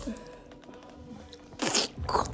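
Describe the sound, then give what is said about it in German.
Wet mouth slurping noises in short bursts, with two louder, harsher slurps near the end, as a person imitates a video game's drinking sound. “Digga, machst du komische Schlürfgeräusche.”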